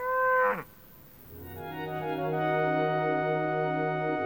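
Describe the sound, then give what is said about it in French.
A short cow moo drops in pitch and breaks off, then after a brief pause a second, long, deep moo swells and holds steady to the end. Fairly loud, with no talking. “À peine arrivées, les vaches se mirent à brouter des algues.”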